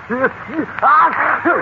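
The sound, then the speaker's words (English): A person imitates the sneeze of a dog called Louis: a few short, nasal, voiced snorts with rising-and-falling pitch, plus one longer breathy burst, all fairly loud with brief gaps between them. “You just call for sneeze.”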